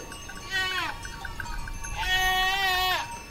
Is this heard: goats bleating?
yes